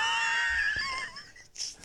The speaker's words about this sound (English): Oh man, you're making me cough.